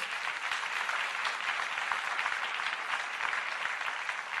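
A church audience claps to applaud God during a sermon, in a dense, continuous wash of applause that holds at an even, fairly loud level throughout, with no voices standing out.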